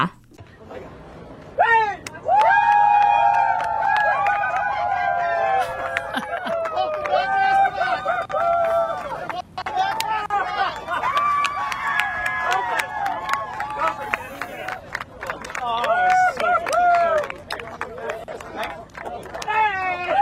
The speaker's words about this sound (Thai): เดี๋ยวพาท่านผู้ฟังทุกท่านนะคะ ไปฟังเสียงบรรยากาศการต้อนรับการกลับมาของนักท่องอวกาศทั้ง 4 ท่านกันหน่อยค่ะ